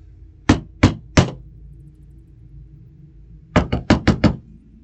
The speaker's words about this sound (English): It is in one of these rocky homes that we meet one of our players as a dwarven messenger boy wearing an ill fitting hat knocks hesitantly on the rustic home the stone door somehow being covered in dust.